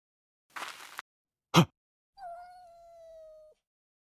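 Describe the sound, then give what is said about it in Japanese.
A brief rustling scrape and a sharp knock, then a cat lets out a single long, drawn-out yowl that holds steady for over a second before cutting off. No one speaks. “猫であった”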